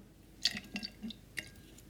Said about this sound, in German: So, nehmen wir mal hier so ein Eis und eine Flasche Captain Morgan. Und da schütte ich den Captain Morgan pur